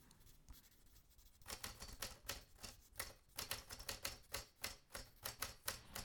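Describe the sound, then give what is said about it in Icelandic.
Rapid typewriter typing, a steady run of sharp mechanical key strikes, starting after a quiet moment and continuing in an uneven clatter with no talking. “og svo líka náttúrulega þessi fræga vélritun það er rosa mikið, hún var alltaf vélrita þetta fyrir hátegi á honum”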